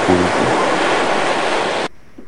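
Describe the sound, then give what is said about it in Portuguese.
A loud rush of ocean surf, as a person with a float around the waist wades into the sea, washes steadily for about two seconds, then cuts off abruptly, leaving near silence. No one speaks. “Dona Luiz bota a boia na cintura e se despede dos dois entrando no mar”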